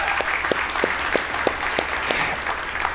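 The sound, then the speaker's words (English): A church audience at The Ridge bursts into a loud, rowdy round of applause for the launch of its Oak Creek Franklin campus, dense clapping going on steadily with a few sharper claps standing out, no talking over it. “And so, can we give a huge and rowdy round of applause for, for them and all that stuff?”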